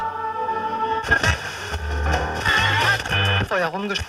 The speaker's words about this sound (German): Jetzt hören Sie doch bitte auf, den Sender zu suchen.